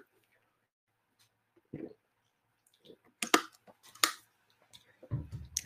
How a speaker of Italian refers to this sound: Bevo un po' d'acqua.